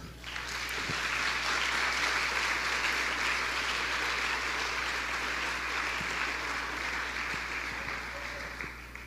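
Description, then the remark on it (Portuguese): A church audience applauds the Lord after a prayer, a dense, even wash of many hands clapping that holds at the same loud level throughout, with no clear speech over it. “E você aplaude o Senhor.”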